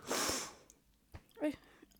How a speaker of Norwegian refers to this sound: Beklager hvis jeg snufser mye. Altså, jeg har vært tett i nesen siden november.